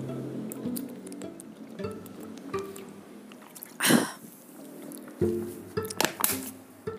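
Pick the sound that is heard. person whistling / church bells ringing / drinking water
drinking water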